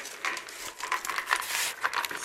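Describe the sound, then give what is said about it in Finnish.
Paper rustling and crinkling as a torn paper strip is wrapped around a vitamin jar to form a paper pot, a steady dry scratchy texture with small irregular bursts, fairly quiet and with no voices. “Eli toi suikale kelataan tämän purkin ympärille”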